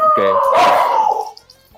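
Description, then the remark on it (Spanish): Pet dogs bark sharply a couple of times, loud, the yelps running together before fading into quiet. “que mis, perros, sí”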